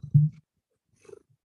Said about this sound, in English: Did you purr into the microphone?